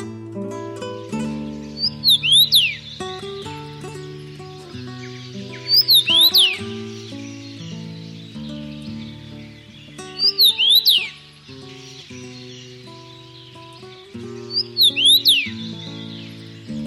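A common rosefinch sings four short, clear whistled phrases, spaced roughly four seconds apart, over steady background music with sustained tones.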